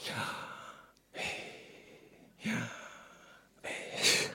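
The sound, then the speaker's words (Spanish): A voice imitates human breathing with four soft, airy exhalations, evenly spaced about a second apart, the last one slightly louder and sharper, representing how the four Hebrew letters Y, H, V, H of the name of God sound when pronounced. Quiet, with no words spoken. “Algo así, un sonido similar al que produce la respiración humana.”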